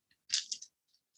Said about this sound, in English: how hard it is to roll nine dice? I do. we need like a cup to just shake.